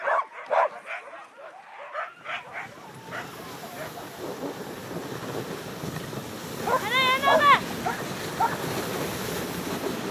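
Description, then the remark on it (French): A pack of sled dogs, ready for their driver to set off, barks and yips in repeated excited bursts, with a louder cluster of howling yelps midway, all over a steady rushing background noise outdoors. “Parce que lui, dès que ses chiens sont prêts, il faut qu'il parte.”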